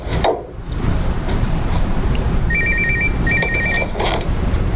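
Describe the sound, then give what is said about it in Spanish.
A mobile phone rings in a house in two short, trilling bursts of a bright electronic tone, heard over a steady wash of low background noise, with no one talking. “Un teléfono móvil suena en casa de Sara y ella mira con disimulo hacia la cámara sentándose en un banco.”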